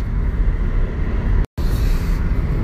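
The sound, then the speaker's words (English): Steady low road rumble fills the inside of a moving car, loud and constant, broken by one abrupt split-second dropout midway before the droning resumes. “I again, I'm in the car”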